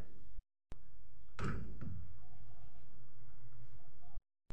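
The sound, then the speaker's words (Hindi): A door opens with a single solid thud followed by a brief creaking rattle, set against a low rumbling background with a faint murmur of voices; the door stands beside another door and opens onto stairs leading down. “सोहन उस दरवाजे की ओर बढ़ता है सोहन अब दरवाज़ा खोलता है”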